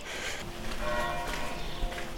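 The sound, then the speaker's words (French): The church bells of the Royal Monastery of Las Huelgas, a Cistercian nuns' monastery founded in 1187, ring out with sustained, overlapping tones, their resonant hum filling the air amid faint outdoor background noise. “Les cloches sonnent alors que j'arrive devant le réel Monastère de Las Huelgas, construit à la demande du roi Alphonse VIII en 1187 pour des moniales de l'ordre cistercien.”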